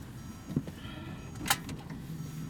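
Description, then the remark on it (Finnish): A car door of a French car is pushed shut with a soft thump and a sharp latch click, over a low steady cabin hum; nobody speaks. “Miten tuo ovi menee kiinni Mä pistän tän.”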